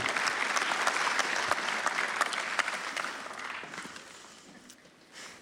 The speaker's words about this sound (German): Applaus für die wunderbaren zwei.